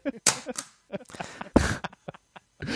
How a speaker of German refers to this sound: Danke dafür. Das war sogar ein richtiger Stempel. Das habe ich noch gehört.